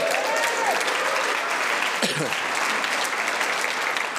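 Steady, dense applause from a crowd fills the whole stretch, loud and continuous with sustained clapping and a brief faint vocal murmur partway through.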